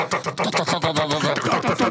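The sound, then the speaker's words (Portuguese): A voice mimics a helicopter as background noise for a mock radio traffic report, with a rapid, steady run of throaty chopping pulses, fairly loud, like spinning rotor blades sustained for a couple of seconds. “BG de helicóptero.”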